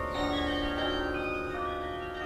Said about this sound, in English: And these bells were actually cast in Loughborough, England.